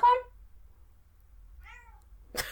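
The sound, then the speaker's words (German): A cat meows twice, a short loud call followed by a softer, falling one, with a quiet low hum underneath and a brief rustle at the end. “Corona ist die Katze permanent auf dem Schoß”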